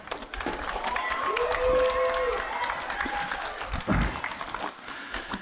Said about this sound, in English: You guys, awesome. Sit down. Let's give them a nice clap.